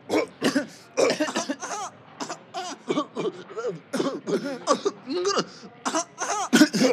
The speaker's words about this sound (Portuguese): não se tosse para cima das pessoas. Desculpa, mãe, é que a tosse está mesmo com grande ritmo, não consigo acompanhar.